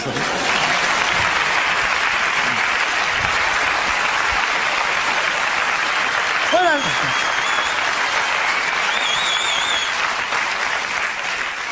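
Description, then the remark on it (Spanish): Sustained audience applause, requested by the performer before he begins, a dense and steady wash of clapping that holds at an even loudness throughout, with a brief whistle-like tone rising out of it partway through. “Eh, si os parece me, me dais un aplauso y empiezo bien, ¿no?”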